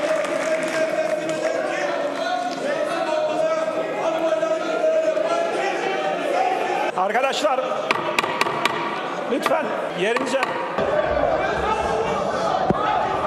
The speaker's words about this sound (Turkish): CHP sıralarından yükselen sesler AK Partilerin tepkileri. Milletvekilleri arasında kavga çıktı.